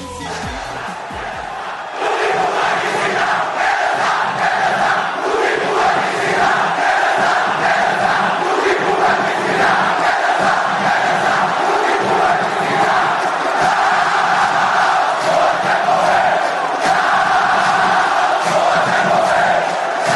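A large crowd of Náutico football supporters in Pernambuco chants a funk song in unison, a loud, dense wall of voices with a steady rhythmic pulse that swells after a brief quieter opening and holds throughout.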